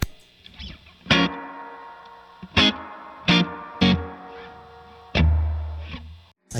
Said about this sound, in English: Here's hall reverb.